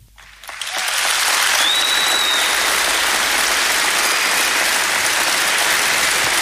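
Loud, sustained applause from an audience after a song swells up within the first second and holds steady as a dense, hissing wash of clapping, with a faint whistle briefly cutting through.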